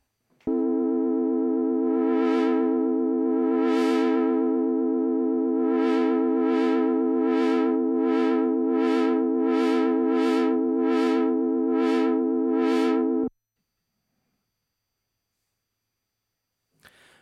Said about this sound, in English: Nearly every synthesizer has a modulation wheel, which is a wheel next to the keys and is readjustable to all the parameters. Let's have that modulating our VCF cutoff.